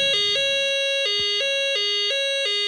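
A buzzy homemade synthesizer tone, with its frequency turned up, jumps steadily back and forth between two pitches, a loud, rapid siren-like alternation played alone with no talking.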